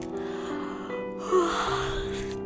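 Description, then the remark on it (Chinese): A voice imitates Mama Bear's long, drawn-out yawn in a children's story read aloud: a steady breathy hum that swells into a louder open-mouthed sigh midway, then tapers off, with no words spoken. “熊妈妈打了一个哈欠。”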